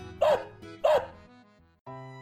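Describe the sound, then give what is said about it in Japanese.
A dog barks twice, two loud woofs about half a second apart, as Dame Hubbard's dog answering her in the nursery rhyme, followed by a brief pause and then a sustained tonal sound at the end. “なんてお利口な子とハバードおばさんするとワンワンと犬は返事をするのです”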